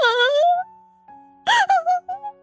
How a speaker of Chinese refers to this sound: 突然，一个呜咽的声音从衣柜里传了出来